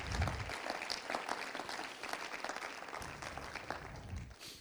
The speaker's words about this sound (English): Why don't you give him another hand clap of praise? Hallelujah.